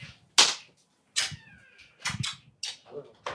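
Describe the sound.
Several quick, close smacking kisses land in an uneven series of sharp bursts, with soft murmured voices and brief vocal sounds between them.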